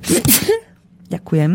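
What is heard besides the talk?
sneeze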